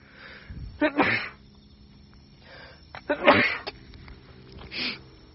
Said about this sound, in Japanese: もうくしゃみ出たら終わりなんですよ。これごめんなさい。